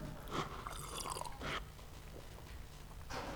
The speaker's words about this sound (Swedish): Ja, jag tänker jag ska dricka lite vatten.